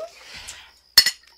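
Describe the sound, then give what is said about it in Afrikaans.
Glasses of juice clink together in a toast, a bright ringing chime with a quick second knock, after a brief clatter of dishes and a moment of quiet. “Gesondheid.”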